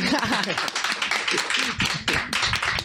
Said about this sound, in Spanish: Entonces, la verdad, bien, ¿eh? un aplauso, por favor, ¿eh? De verdad. Gracias, gracias. Muy amables.